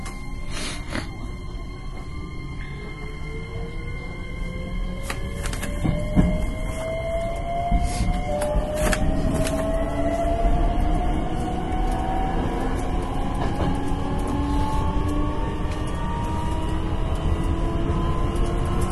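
A Hankyu 9300 series Kyoto Line limited express train, Kawaramachi to Umeda, running from Nagaoka-Tenjin toward Takatsuki-shi: a steady, loud rumble of wheels on track with a motor whine that climbs in pitch as it accelerates, plus occasional clacks. No voices.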